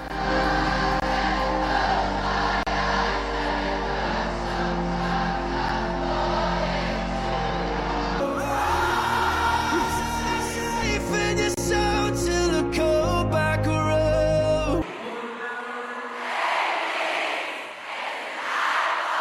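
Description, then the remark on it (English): A huge crowd at the Glastonbury festival singing together for a singer in a loud, sustained roar of massed voices. Midway it swells into noisier cheering and clapping, then fades to a softer crowd wash. “Listen to that crowd.”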